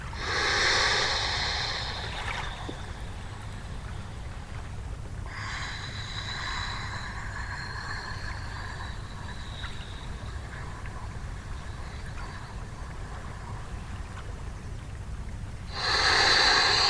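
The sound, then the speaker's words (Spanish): A freediver floating at the surface takes slow, deep breaths in and out without filling the lungs too much, with a slightly hollow, wheezy tone, three long breaths spaced several seconds apart over a steady low rumble of water. “Y escucha al propio … respirando”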